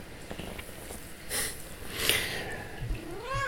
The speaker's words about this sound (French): Oui, euh, j'ai mon chat qui dit miaou.